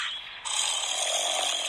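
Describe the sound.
A single loud, raspy snore from the wolf asleep in the grandmother's bed in the story of Little Red Riding Hood, a harsh rattling breath that swells after a brief softer start and holds steady for over a second, with no voices.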